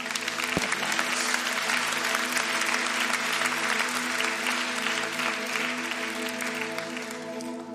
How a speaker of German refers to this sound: Geben wir ihm noch einen kräftigen Applaus.